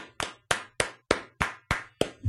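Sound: round of applause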